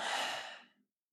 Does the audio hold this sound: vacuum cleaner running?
no